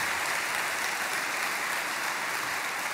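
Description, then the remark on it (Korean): An audience at a dawn worship service applauds missionaries steadily, a dense, even wash of many hands clapping at once that holds at a constant loudness for the whole stretch, with no voices on top. “우리 영상으로 보신 것처럼 세계 곳곳에서 어, 특별히 열악한 지역에서 또 병이 들어가며 복음을 전하신 우리 선교사님들 이 새벽에도 아마 아, 우리 예배를 함께 참여하고 계실 텐데 큰 격려의 박수, 사랑의 박수를 함께 드립니다.”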